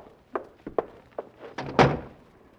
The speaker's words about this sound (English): Close that door,